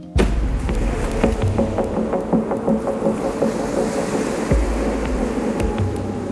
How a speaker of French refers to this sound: À chaque passage, la coque avant du voilier tape sur l'eau dans un fracas sourd et violent.